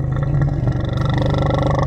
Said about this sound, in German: Was für ein markerschütterndes Knurren. Goldene Augen, silbrig glänzende Schuppen und scharfe Klauen.